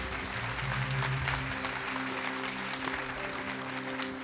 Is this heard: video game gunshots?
no